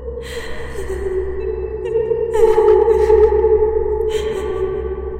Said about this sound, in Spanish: Y por si esto no fuera suficiente, el llanto de aquella niña se volvió a escuchar.